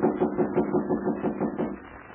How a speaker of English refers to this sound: Suddenly, there are knocks at the door.